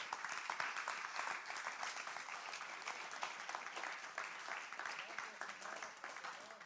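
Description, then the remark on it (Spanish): An audience applauds steadily for several seconds, clapping for the Lord during a church sermon, a dense wash of many hands clapping at a fairly even level, with murmured voices blending into the sound. “Dele palmas al Señor.”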